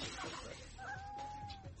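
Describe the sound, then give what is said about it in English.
A pregnant female cat lets out a single long, drawn-out meow with a steady, whining pitch, over a constant background hiss and low rumble. “And then pregnant cat is a bitch, but this cat's pregnant.”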